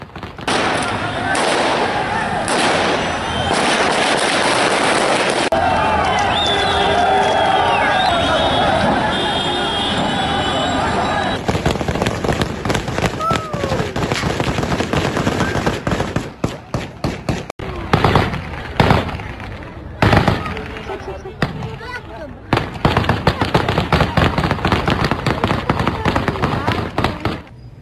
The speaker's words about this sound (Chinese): 来看现场，街上的人听到枪声吓得逃跑，还有人直接蹲下，不敢乱动。